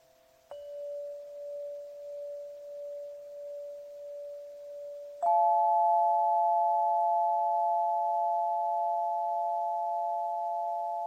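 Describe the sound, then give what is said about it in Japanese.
A crystal instrument rings out with a pure, sustained tone, gently pulsing, then a second, higher tone strikes in and layers over it, the two humming together and slowly fading. “クリスタルの音色のご紹介”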